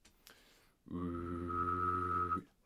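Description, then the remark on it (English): A person whistles and hums at once for about a second and a half: a steady high whistle rides over a low buzzing hum, both sustained, then stop together. “And then I can uh, whistle and hum at the same time.”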